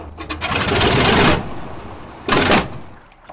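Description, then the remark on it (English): A boat's outboard motor, slipped halfway into the water after an engine mount snapped in a tight turn, sputters loudly in a rough, rapid chugging burst, coughing blue smoke, cuts out, gives one short cough, and then goes quiet. No voices are heard. “The outboard motor slips halfway into the water, coughs up some blue smoke, and”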